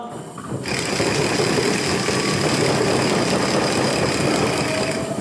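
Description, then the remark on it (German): Many Purim noisemakers (ratchets) rattle at once in a synagogue, with knocking, to drown out the name Haman during the reading of the Book of Esther: a dense, loud, continuous clatter that erupts after a brief quieter moment and keeps going without a break. No voices can be picked out. “Der Name dieses Antisemiten soll durch die Ratschenlautstärke und durch Klopfen übertönt werden.”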